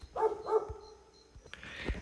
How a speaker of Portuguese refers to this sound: Tive que parar pra dar um fecho no cachorro. Espero que ele pare de latir agora.